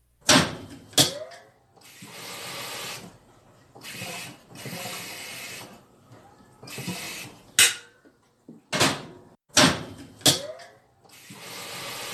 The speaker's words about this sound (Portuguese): A chaleira sendo enchida